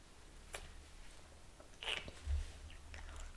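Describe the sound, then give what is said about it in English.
Quiet chewing of cold, icy, wet sorbet, with a few soft crunchy bites and wet mouth sounds spread over a few seconds, and a faint low hum underneath. “It's um, it's hard to eat. Well, it's probably because our sorbet's so mm. wet.”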